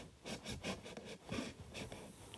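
A pocket knife saws through a cardboard box in a quick series of scratchy, rasping strokes, fairly quiet, with no one talking.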